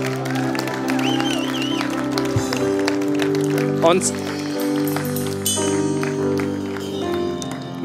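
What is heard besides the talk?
audience applause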